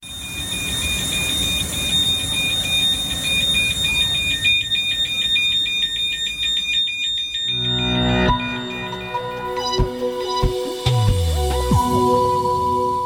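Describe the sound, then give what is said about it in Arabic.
An aircraft cockpit ground-crew call horn sounds as a loud electronic tone warbling rapidly and steadily for several seconds, then gives way to other shifting tones and descending sweeps. “وللعلم الطيارين ليسوا اكثر من يستخدم الهورن اللي يستخدموا اكثر بطبيعه الحال المهندسين اكثر من غيرهم خاصه عند اجراء حالات للصيانه في داخل قمره القياده حتى يجذبوا انتباه زملائهم على الأرض طبعا نسمح انا وياكم صوت الهورن”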